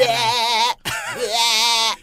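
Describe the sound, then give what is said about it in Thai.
A voice imitates a goat bleating in a broadcast studio: two loud, quavering bleats, the first about three-quarters of a second long, then a brief break and a longer wavering one. “จะมาอาเจียนอะไรในห้องจัดรายการแบบนี้ไม่ได้เสียงแพะ นี่หูเราแนะ”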